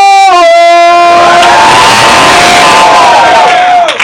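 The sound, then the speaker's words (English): A crowd at a talk on hip hop cheers and roars loudly for about four seconds, with one long, steady, high-pitched whoop held over the noise until it cuts off near the end. “None of this Bullshit, come on! Make the noise!”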